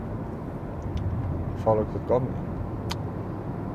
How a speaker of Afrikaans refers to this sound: Ek is in die kar.